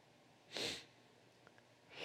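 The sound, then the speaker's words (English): A sharp, breathy sneeze bursts out, followed by a short quiet pause before a second similar hissing burst begins right at the end. No one speaks. “God bless you”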